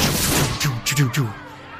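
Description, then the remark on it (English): A voice imitates magic missile spells cast from a crowd at a character, Otto, with a quick run of about four sharp, buzzy zapping bursts, each a short punchy blast with a low voiced tone, fired in rapid succession. “The magic missiles come from the crowd as it goes”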